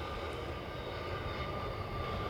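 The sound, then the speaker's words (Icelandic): A close airplane passing by, its engines roaring in a steady, dense drone with a faint whining hum on top. The sound holds level throughout, with no voices. “Nú er vélinn hér að, að fara fram hjá okkur öll skamt undan.”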